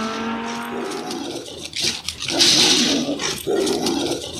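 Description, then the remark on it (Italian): A car engine whines and revs, followed by harsh, noisy bursts of a dog barking or snarling as it chases, all fairly loud with no talking. “E questa sì, e questa è la categoria inseguimento di uno speaker con un cane alle calcagna.”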